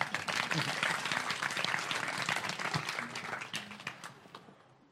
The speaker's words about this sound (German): Begrüßen Sie bitte ganz herzlich mit mir Can Dündar. Und bitte einen Applaus an den Übersetzer